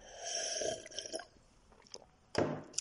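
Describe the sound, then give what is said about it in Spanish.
A person drinks water with gulps in a steady swallowing run followed by a pause, small mouth clicks, and then one louder final gulp or exhale. No one speaks. “Déjame ver agua, que tengo ya la boca seca de tanto grabar.”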